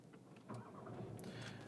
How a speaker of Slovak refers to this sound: otvorím dvere, zavriem dvere, naštartujem motor,